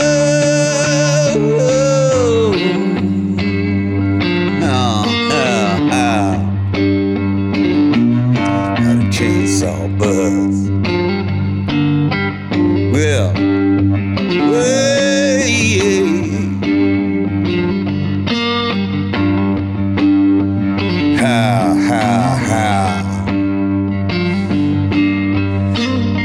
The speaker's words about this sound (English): Well, folks, that's that's the sound of a cigar box. Uh, three strings on that thing is open tuning, uh, key of G, yep. key of G, open tuning